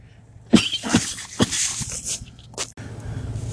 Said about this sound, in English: Excuse me, family, about coughing. I hated to do that. Sinuses is acting up again.